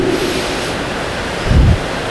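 Steady rain falling at dawn hisses throughout, an even wash of noise with no voices, and a brief low rumble swells up for a moment near the end.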